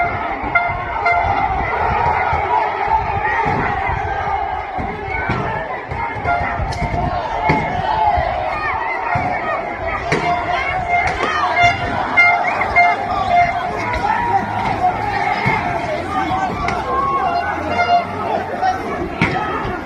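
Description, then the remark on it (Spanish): An ambulance carrying injured people, with a nurse and a doctor aboard, honks repeatedly amid the steady roar of a large protest crowd blocking its way, short horn blasts cutting through dense overlapping voices, chatter and shouting. “Es la ambulancia al fondo, ¿no es cierto?”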